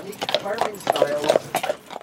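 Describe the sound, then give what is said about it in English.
Horse hooves clip-clop in a steady, repeated rhythm on hard pavement from a horse-drawn carriage tour near Stanley Park on a Victoria Day long weekend, while a person talks over the clopping throughout. “With the bike lane taking up a lane of traffic, it's been a challenge for cars and the horse drawn carriage tours.”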